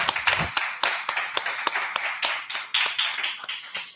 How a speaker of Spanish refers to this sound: Un aplauso, un aplauso sí.